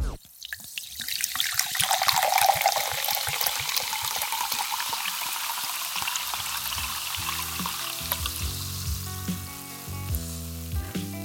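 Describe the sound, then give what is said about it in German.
A bright, crackling fizz of a carbonated drink, not just mineral water, being poured to create a drink-advertisement sound, loud, with bubbles hissing steadily; after a few seconds a low tonal backing joins beneath the sparkling effervescence. “Das hier war gar nicht nur Mineralwasser.”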